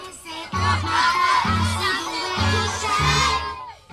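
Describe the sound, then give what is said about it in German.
A crowd of children cheer and shout excitedly on a school bus, their high voices loud and continuous for the whole stretch, with a steady, pulsing low beat of music underneath. “Bereits im Schulbus herrscht prima Stimmung. Keine Fahrt ohne Musik.”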